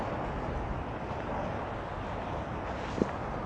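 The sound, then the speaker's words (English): Steady rain falls with a dense, even hiss filling the background, and one brief sharper tap stands out near the end. No one speaks. “Can you hear the raindrops?”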